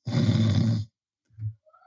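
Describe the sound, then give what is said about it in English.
Someone imitates a snore through the nose: a loud, rattling, low-pitched snort lasting almost a second, then a brief pause and a shorter, softer nasal rumble. “But now snore through your nose, and it goes like this.”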